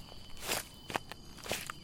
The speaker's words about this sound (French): Éveillez maintenant vos facultés d'évocation et imaginez que vous êtes en train de marcher sur un sentier de randonnée. Vous êtes en pleine ascension vers une petite chapelle dont vous aviez entendu parler.